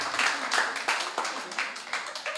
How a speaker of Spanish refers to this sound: Un aplauso a los del cuartito. Ayudan mucho.